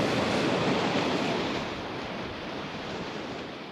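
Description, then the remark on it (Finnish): Sea waves surge in a steady broad rush, loudest in the first second and a half before easing into a softer, continuous wash. No voices are heard. “Meri velloi edessämme monta päivää.”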